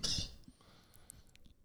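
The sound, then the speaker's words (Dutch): A single loud, harsh cough bursts out at the very start, then fades into quiet background noise with a few faint clicks. “er ook iemand hoestsiroop bij zich?”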